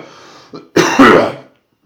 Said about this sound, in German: bevor ich, nachdem ich huste,